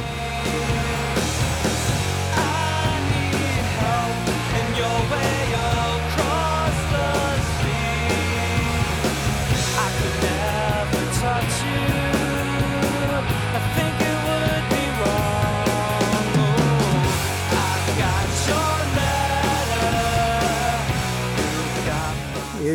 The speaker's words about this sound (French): Donc euh, on écoute encore 10-15 euh, secondes pour se faire plaisir parce que j'aime bien le morceau